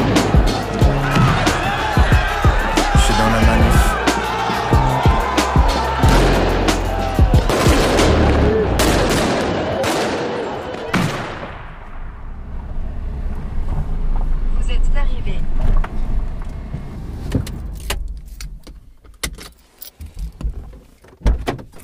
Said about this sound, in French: Je ne peux pas dire que je sois très familière de ce coin de France, où le chant des oiseaux contraste assez fortement avec le bruit des manifestations anti-réforme des retraites de ces derniers jours. Je suis dans la manif.